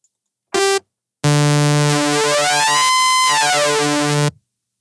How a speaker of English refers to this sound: there's a function into the synthesis called oscillator sync